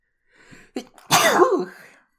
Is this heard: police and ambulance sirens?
no